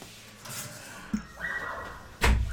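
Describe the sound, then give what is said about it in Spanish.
A door is pushed shut with a soft scrape and then a solid thump, followed by a brief low rumble after the latch catches. “Nada más cierro la puerta.”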